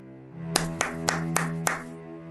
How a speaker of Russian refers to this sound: Отражение Корягина вскочило и громко захлопало в ладоши.